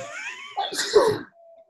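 A single sneeze: a short wavering inhale builds into one sharp, breathy, explosive burst, fairly loud, followed by quiet with a faint steady hum. No talking.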